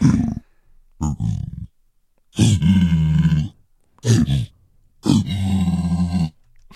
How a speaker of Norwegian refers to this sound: Det er altså en zombie pigman fra ah, Minecraft.